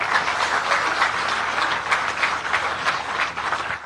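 An audience breaks into steady applause for a man who has been at Die Burger for 47 years, since 1970, many hands clapping in a dense, even patter that holds at a fairly loud level throughout, with no voices heard over it.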